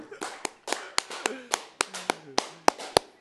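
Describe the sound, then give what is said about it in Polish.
A steady run of about a dozen sharp hand claps at a brisk, even pace, fairly loud, with a voice talking underneath throughout. “On to jakoś zmontuje, też się tam przejdę i pobiję brawo.”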